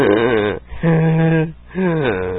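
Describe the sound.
A voice imitates strained, wheezy breathing, as when swollen throat glands make breathing hard: three drawn-out, raspy, partly voiced breaths in a steady rhythm, fairly loud, with short pauses between them and no other sounds.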